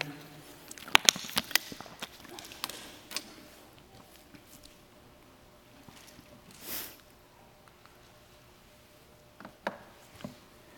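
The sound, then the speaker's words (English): Scattered soft rustles and crisp flicks of Bible pages being turned, several at once, as people turn to Romans 3, with one longer swishing turn midway and a few sharper flips near the end. “I hear a couple pages turning.”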